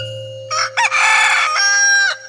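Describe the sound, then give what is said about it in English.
A rooster crows once, loud: a short opening note, a brief break, then a long harmonic cock-a-doodle-doo held for over a second before cutting off, with a faint steady hum underneath. “Until, all of a sudden, the strange bird jumped out of the small black box, tipped its feathery head toward the sky, and let out a big”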